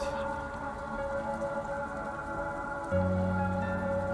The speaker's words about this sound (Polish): A zbiera się na deszcz.